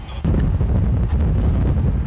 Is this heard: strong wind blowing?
yes